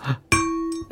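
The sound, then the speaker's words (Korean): A single bright bell ding strikes sharply and rings out clearly for about half a second before cutting off, signalling a wrong answer on a radio quiz, with brief bits of voice just before and after it. “땡입니다.”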